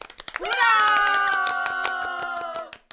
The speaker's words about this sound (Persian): مدتی کف زدناتون از کار افتاده آه خب یه کف مرتب براش بزنین دیگه.